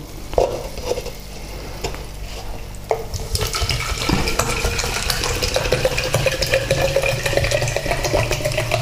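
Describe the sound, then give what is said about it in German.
Mineral water pours steadily into a glass for several seconds, its gurgling tone rising in pitch as the glass fills, with a fizzy hiss underneath and a couple of light clinks beforehand. “Ich gieße mal ein.”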